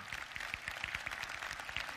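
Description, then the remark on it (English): A crowd of many people clapping together, a steady dense patter of overlapping claps with frequent sharp hits, sustained at an even level for the whole stretch with no voices rising above it. “Now, all the people clapping are the people who were here on time.”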